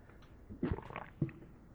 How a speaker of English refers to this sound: I'm gonna try and gulp like you.